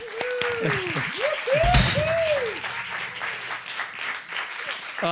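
An audience breaks into applause welcoming a band's vocalist, a dense wash of clapping that holds steady for several seconds, with cheering voices and whoops rising above it near the start.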